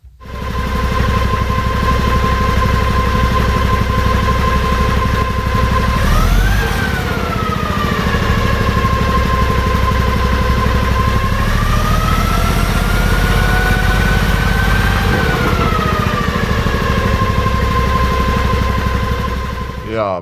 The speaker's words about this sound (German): Wie klingt denn ein Wasserstoffverbrennungsmotor? Ähm, ich habe mein Handy mal unter den Motor drunter gelegt und den einfach mal laufen lassen.